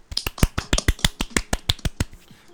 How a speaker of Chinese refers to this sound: 不免俗的还是要拍拍手，虽然我们现在 不知道为什么每次都拍完有一种尴尬的感觉， 因为就觉 边界感 得就觉得说，嗯，这还需要拍手吗？